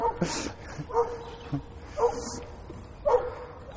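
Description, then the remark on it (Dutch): Dogs bark and yip in a series of five or so short, sharp bursts spaced irregularly over a few seconds, moderately loud, with no one speaking. “Nou, of hij heeft zes grote honden en heeft heel veel vrije tijd.”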